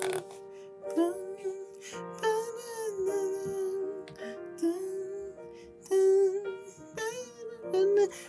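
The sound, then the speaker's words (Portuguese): A slow, tender love song from the Twilight film, often played at weddings, plays in the background at a moderate, steady level, with a gliding sung melody over sustained, chiming instrumental accompaniment and no talking. “E tem uma coisa que quase todos os casamentos que eu fui ultimamente, depois que eu comecei a ter essa noção, foi aquela música do Crepúsculo. Miguel já colocou ela aqui no fundo.”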